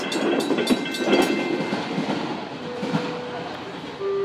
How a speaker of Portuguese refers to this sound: Estação de versonoridade. Mas que trem é esse, hein?